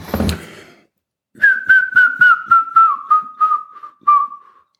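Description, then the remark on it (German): A person whistles a grey-headed woodpecker call: a series of about ten clear, evenly spaced notes that slowly fall in pitch and fade toward the end, preceded by a short rustling thump. “Das ist dieses Absterbende, ähm, das ist der Ruf des Grauspechtes, äh, der sich von dem Ruf des Grünspechtes insofern unterscheidet, als er so vom Lachen ins Weinen ab, äh, abschwächt, abstirbt.”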